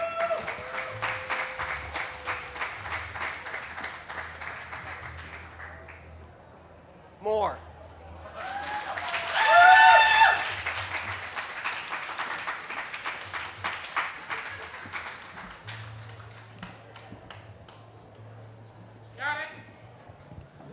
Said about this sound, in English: She's pretty, but she's not very smart. Round of applause.